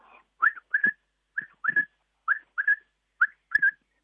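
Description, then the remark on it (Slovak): A person whistles an imitation of a common quail call, repeating the short, sharp three-note phrase four times in a steady rhythm, clear with no other sounds. “Tak vždycky ich mám rád, keď tu prepelitu už potom počujem, že sme, keď sme chodili kosiť.”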